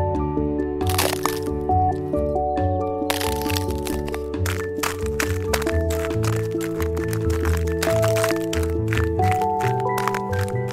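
A hole is chipped open in ice to go fishing, in a little-penguin fishing story: a series of sharp, irregular cracking and crunching hits, fairly loud, layered over steady background music with no talking.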